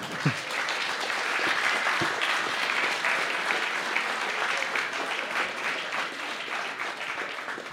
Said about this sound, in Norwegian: Vi kan ta en liten applaus.